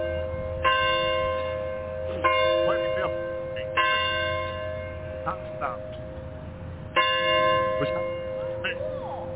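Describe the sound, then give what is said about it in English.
Wedding church bells ring out in four resonant, unevenly spaced strikes, each tone lingering and overlapping the next, with faint voices and background activity underneath. “One side, the wedding bell for two days.”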